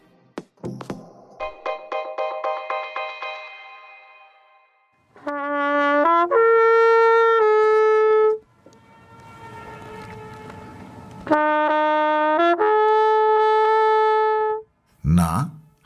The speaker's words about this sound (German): Haben Sie erkannt, wo Sie diese Trompete und vor allem dieses Echo hören können oder schon mal gehört haben könnten? Genau, am Königssee, dem einzigen fjordartigen See der Alpen mit smaragdgrünem Wasser. Gelegen im Süden von Bayern, nahe Salzburg.